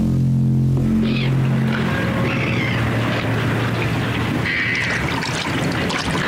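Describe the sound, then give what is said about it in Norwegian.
Water sloshes and splashes steadily as a paddle works through it on the Glomma river, a continuous churning wash with a low hum underneath at the start, fairly loud, no voices. “Jeg har merket at det liksom har blitt tyngre og tyngre å padle i det siste.”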